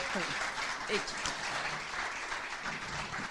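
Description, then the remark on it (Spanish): Steady applause from an audience, a dense wash of clapping that holds at an even level throughout, with faint voices mixed underneath. “Fuerte el aplauso.”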